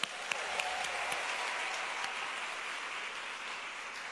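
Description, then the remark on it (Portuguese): A church audience applauds steadily for several seconds for those who came in the rain, a dense, even wash of clapping with a few sharper claps standing out near the start, and no voices over it. “Uma salva de palmas para vocês que vieram na chuva.”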